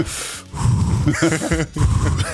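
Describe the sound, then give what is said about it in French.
Exaggerated, loud rapid breathing, a run of harsh gasping inhales and exhales, with some voiced, almost laughing edges, like someone mock-hyperventilating. “On va tous super ventilés dans la sauce là.”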